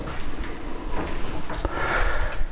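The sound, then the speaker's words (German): Drawers are checked and pushed shut to make sure all are closed: a few scraping slides and soft wooden knocks, with light rustling between them and no one talking. “ja, wird nur mal, nur mal guckt, ob alle Schubladen zu sind, ist ja wichtig.”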